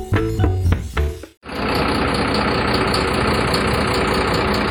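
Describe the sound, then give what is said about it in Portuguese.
A short musical sting ends abruptly, then a water tanker truck's engine idles with a steady, loud rumble and diesel clatter that holds unchanged to the end, with no voices. The truck supplies drinking water to families affected by a dam collapse in the Paraopeba river basin. “Esse barulho que você ouve é de um caminhão-pipa.”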